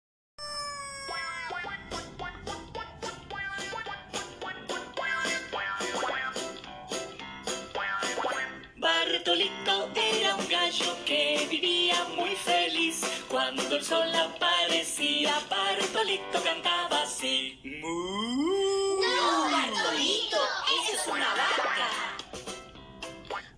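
A bouncy, upbeat children's song about a rooster plays loud and steady, packed with bright instruments and playful cartoonish boing effects, with a swooping, sliding sound near the end.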